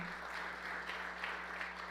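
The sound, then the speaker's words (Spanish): An audience applauds loudly in a steady, dense wash of clapping that fills the room for the full two seconds, with no pause or voices breaking through. “Del otro aplauso fuerte.”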